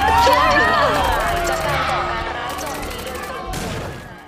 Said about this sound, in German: Das waren Schüsse!